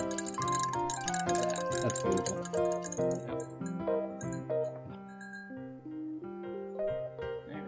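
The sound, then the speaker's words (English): Ice being stirred in a glass while mixing a drink, giving a steady run of bright clinks and ringing tones, with a brief spoken remark near the end. “The sound of me mixing a drink.”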